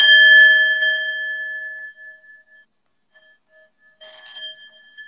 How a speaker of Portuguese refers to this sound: por exemplo, eu pego aqui o som da, da tigela tibetana. Então, eu, eu quero um código para trabalhar, porque essa tigela está vibrando em torno, já fez as medições, entre 900 a 1000, 1100 Hz. Então, ela tem um som bem agudo.